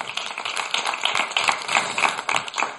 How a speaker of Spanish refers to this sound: Ese aplauso lo merece Cristo, aleluya. Gloria a Cristo.